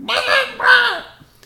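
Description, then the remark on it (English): A person's voice imitates a chicken with two loud, nasal squawking bursts in quick succession, trailing off into quiet at the end. “It's the chicken noise you just did.”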